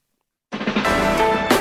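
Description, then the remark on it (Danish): After a half-second of silence, a loud jingle for the show Fredagsmissionen on Radio 4 bursts in abruptly, a dense blend of sustained musical tones with a bright flare near the end, prominent with no talking. “Lidt høj jingle der.”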